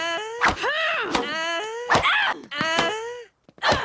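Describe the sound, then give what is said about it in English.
A series of loud, drawn-out vocal moans and grunts of a tennis player, each starting with a sharp thwack of a racket striking a ball, repeating about five times in steady rhythm. “I play tennis and I make noise when I hit the ball.”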